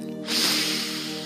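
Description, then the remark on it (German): A single deep breath drawn in through the nose during a guided breathing exercise, a soft airy rush that swells quickly and then tapers over about a second, fairly clear, with gentle background music underneath. “Atme durch die Nase ein”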